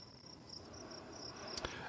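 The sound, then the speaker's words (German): Crickets chirp steadily in a continuous high-pitched trill, clear, over a low ambient background with a brief soft rustle near the end. No one speaks. “Also bei den Grillen hätte ich jetzt eher an, an so einen Sommerabend gedacht.”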